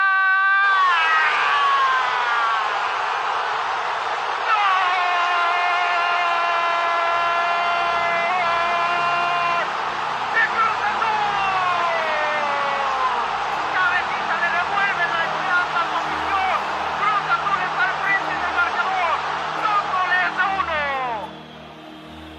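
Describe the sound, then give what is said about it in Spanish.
A stadium crowd roars in celebration of a headed goal in a football match between Santos and Cruz Azul, a dense, loud wall of many voices with long held shouts, sustained for about twenty seconds before dropping off abruptly. “El zumbido ensordecedor de miles de voces unidas al grito de gol terminaron por espantar a los fantasmas del Cruz Azul.”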